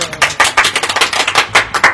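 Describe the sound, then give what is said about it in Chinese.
A small group claps together, a dense run of sharp, overlapping hand claps keeping up a brisk, uneven patter for a couple of seconds, fairly loud and with no voices. “来来来，鼓掌一下，鼓掌一下！”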